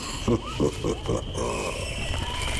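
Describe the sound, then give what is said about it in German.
Monkeys clambering overhead in a dense jungle chatter in a quick burst of four harsh, grunting calls over a steady buzzing jungle ambience, then the calls give way to a busy background of rustling and animal noise. “ja, und schon turnen die Affen über unseren Köpfen umeinander.”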